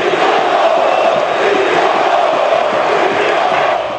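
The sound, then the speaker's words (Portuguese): A loud, continuous roar of São Paulo football fans cheering in a stadium at Rivaldo's debut, a dense wash of many voices that stays steady and full throughout without pauses. “Pela marcação de microfones e câmeras na saída do campo e pela festa da torcida do São Paulo, Rivaldo até merecia uma nota igual ao número da camisa.”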